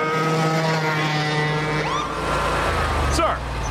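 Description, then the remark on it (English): A lawnmower engine drones loudly and steadily, then whines past with a quick rise and fall in pitch as the mower speeds by at 40 miles an hour in a residential area. “Sure, but I'm on my lawnmower.”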